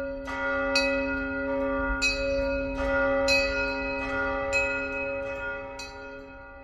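A brass rashad, a traditional handmade coffee mortar, struck repeatedly by its pestle while grinding, each blow ringing out with a bright, sustained bell-like tone that overlaps the next, in an uneven rhythm, fairly loud with no talking.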